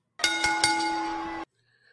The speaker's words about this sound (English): Do me a favor, sir, please. What do you need, sir? Ring that bell.